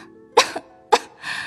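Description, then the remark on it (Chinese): Two sharp coughs spaced about half a second apart, the first followed by a smaller hacking catch, then a soft breathy rasp trailing off afterward, from someone who starts coughing while talking, out in a cold wind. “一面说话，一面咳嗽起来。”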